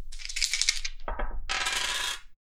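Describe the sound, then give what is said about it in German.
Two six-sided dice are rolled on a table for a return voyage in a game, landing on 3 and 1: a bright, rattling shake, then a sharp knock and a second longer burst of tumbling before they settle. No one speaks. “Rückreise. 2d6.”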